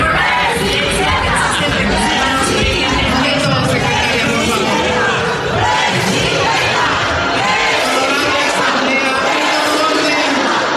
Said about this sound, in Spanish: El griterío intenso se confundió entre el llamado enérgico de la presidenta de la mesa directiva, Marcela Guerra, que llamó al orden